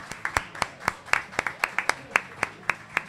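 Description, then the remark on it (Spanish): Sparse audience applause, the audience of friends who came that afternoon clapping for themselves: a string of sharp, distinct claps in a fairly steady, quick rhythm, moderately quiet, with no voices over it. “pero lo que tenemos sobre todo es una preciosa familia de amigos y amigas que han venido esta tarde, así que podemos pedirle un aplauso para ellos mismos.”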